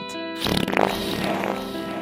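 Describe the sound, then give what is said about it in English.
A loud, buzzy fart sound, a low rippling tone that breaks into a longer sputtering, noisy blast lasting about two seconds, with no talking. “We sound much better than a fart.”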